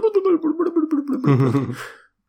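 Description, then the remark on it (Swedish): A person mimics the call of black grouse sitting up on high ground, with a warbling, bubbling coo that slides lower, then breaks into a short rasping hiss. It is fairly loud, with no other talk. “Oh, jag har ju haft hur mycket orre som helst hemma. Man hör hur de sitter uppe på höjden och bara”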